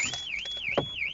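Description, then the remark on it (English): The alarm of a car with a person sitting inside blares with a loud, continuous high-pitched siren that sweeps smoothly up and down in a steady warble, with a few brief muffled thumps underneath. “Well, now I know what my alarm sounds like.”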